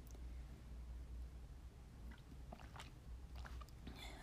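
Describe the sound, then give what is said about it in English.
Someone takes a quiet sip of water, with a few soft wet mouth clicks and a swallow over a low steady hum. No one speaks. “First, I'm going to get a sip of water here.”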